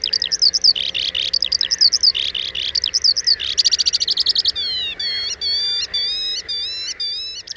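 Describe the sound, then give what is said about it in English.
A skylark sings a rapid, continuous stream of high warbles, trills and rising whistled notes, clear, with no pauses and no voices. “Imagine singing for three minutes while soaring to 100 feet in the air. The skylark.”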